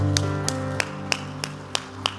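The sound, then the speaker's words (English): An audience clapping hands in unison to praise God, seven sharp, evenly spaced claps on a quick steady beat, over a sustained low hum of background music. No one speaks. “Would you clap your hands, everybody, and praise Him?”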